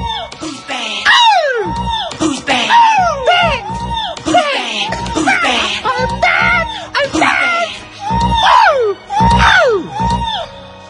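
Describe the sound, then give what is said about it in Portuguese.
A high-pitched singing voice lets out repeated swooping screams and whoops, loud, running almost continuously with brief gaps over a busy musical backdrop. “As pessoas adoravam aquele grito.”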